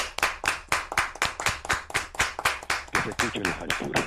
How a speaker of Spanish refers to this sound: Esa palmada es grotesca, eh, obviamente de las manos gigantescas